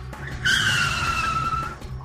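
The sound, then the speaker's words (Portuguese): A loud, sustained tire screech as a car skids under hard braking, lasting over a second with a low engine rumble underneath, then fading at the end. “tentou frear em cima deles, fazer eles bater, mas o motoqueiro ele é muito bom, ele desviou”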